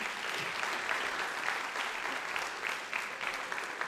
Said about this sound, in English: So round of applause to the parents, but really to the doggy.